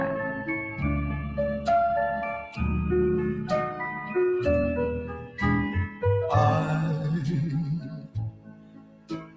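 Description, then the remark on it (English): A cheerful Christmas theme song plays with bright, jingling bell tones over a bouncy melody, steady and fairly loud throughout with no voices. “this is this is the theme song that will help them to find their way”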